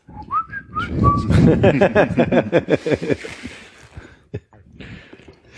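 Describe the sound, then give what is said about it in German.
A short whistled product jingle, a few bright rising and falling notes, then quickly gives way to laughter and voices. “ich bin mir auch gar nicht sicher, inwiefern es dann okay ist, Konkurrenzprodukte dann zu pfeifen zum Beispiel.”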